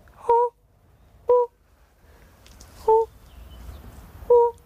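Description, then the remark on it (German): A biologist searching a pond for the rare fire-bellied toad imitates its lure call: four short, mellow hooting notes, evenly spaced about a second and a half apart, clear over faint outdoor background noise. “Man findet sie aber leichter, wenn man den Ruf der Rotbauchunke drauf hat, so wie sie. Der Lockruf der Rotbauchunke.”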